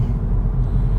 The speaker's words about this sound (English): it sounds like this podcast is being recorded from inside a moving vehicle, and it is. It is. Uh, this is something that I've been doing for the last few years uh, when traveling after road games,